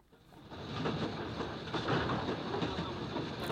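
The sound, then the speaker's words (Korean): A train starts running and rumbles along the tracks, building from a quiet start into a steady, dense clatter of wheels with faint rhythmic clacks, continuous with no voices. “기차는 달려가기 시작했습니다.”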